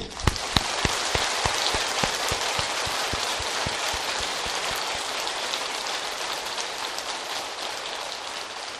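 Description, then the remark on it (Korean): An audience breaks into steady applause at a speaker's request, a few sharp individual claps at the start blending into a dense, even patter of many hands that continues for about nine seconds with no talking. “그리고 박수를 치십시오.”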